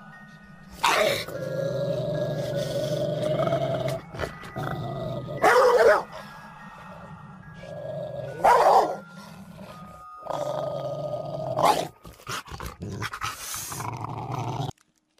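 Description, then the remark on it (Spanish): Several big dogs, the enormous dogs Señor Horta has set loose, growl low and menacingly, breaking into loud, harsh barks in repeated bursts between rumbling snarls, aggressive, with no talking. “La gente pobre no podía acercarse a esa gran mansión, porque si lo hacía, el señor Horta mandaba soltar sus enormes perros.”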